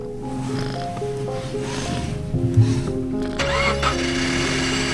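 A car engine cranks and turns over, catching with a surge around the middle and then settling into a steady idle hum with no voices.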